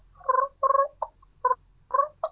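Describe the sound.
A human voice, using its natural voice, imitates the sounds turkeys make when feeding, making about six short, throaty clucks and purring bursts in an uneven rhythm. The sounds are moderately loud, with brief gaps of quiet between them.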